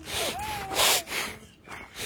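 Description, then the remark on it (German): A few quick, breathy sniffs drawn in through the nose, taking in fresh country air outdoors in Basthorst, with a faint bird whistle in the background. “kann man die Nase nochmal mit der frischen Basthorster Landluft.”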